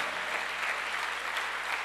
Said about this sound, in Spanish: Ahora sí, dele fuerte ese aplauso al Señor.